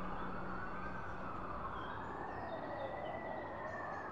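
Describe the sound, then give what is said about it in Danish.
Police car sirens wail in slow rising and falling sweeps over a constant wash of street and traffic noise, with no one speaking: police cars already in the area responding to a call on a long villa road in Amager, Denmark. “de første sirener kom ganske kort tid efter for politibiler, der allerede var i området.”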